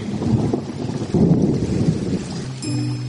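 Steady rain hisses down while low thunder rumbles throughout, swelling louder midway. Near the end, a faint tonal hum with steady pitched lines enters beneath the downpour. No one speaks.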